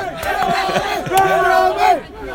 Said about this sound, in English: we're outside the coaches now, where we're in that little bit where uh, United fans and Chelsea fans start to come in